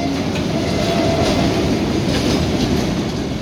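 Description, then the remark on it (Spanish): A freight train rolls past a few metres away in the south district of San Miguel de Tucumán, as it does every day. A loud, steady rumble of wheels on rails with faint rhythmic clatter and a brief high squeal fills the whole stretch, with no voices. “cierra las ventanas para evitar que se cuele el ruido del tren de cargas que pasa a pocos metros todos los días.”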